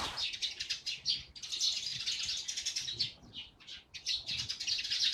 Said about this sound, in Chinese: 我现在是站在静桥的这个廊子上面，你们听到的都是麻雀的声音。